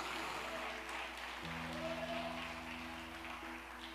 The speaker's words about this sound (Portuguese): Vai aplaudindo e vai glorificando o nome do Senhor.